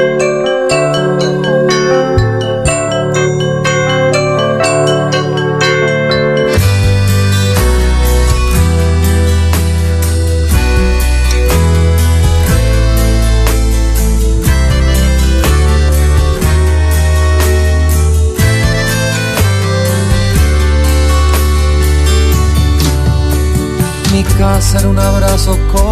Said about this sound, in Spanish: me gustan los temas viejos con el pelado bordado y los temas nuevos están muy buenos también. Eh. Bien, lo escuchamos entonces